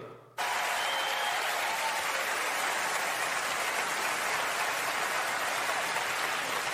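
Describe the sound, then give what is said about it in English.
A large crowd at the 2020 Oscars in Hollywood gives a standing ovation as award presenter Zach enters, bursting into sustained, dense applause that starts abruptly and holds steady and loud throughout, a continuous wash of clapping with no voices standing out. “He entered the room in Hollywood to a standing ovation.”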